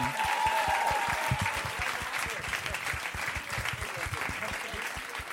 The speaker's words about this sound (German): Einen großen Applaus für unser Knutschgeräusch. Ein Riesenapplaus für unseren ängstlichen Hund.